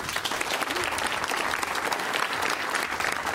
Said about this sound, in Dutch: geef hem maar een applaus.